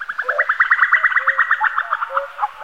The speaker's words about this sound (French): On dirait le gloussement de l'épervier. Un coucou Un coucou qui ne fait pas coucou, c'est curieux. Ah mais oui, c'est sa femelle.